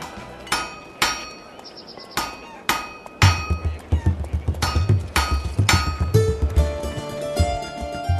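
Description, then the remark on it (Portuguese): Sharp metallic hammer strikes ring out on an anvil, first as spaced single blows, then a faster, busier run of clanging hits with a lingering metallic ring, loud, with no talking. “Mas antes de começar essa bagaça, a gente vai lá afiar os sábios com o ferreiro e já volta.”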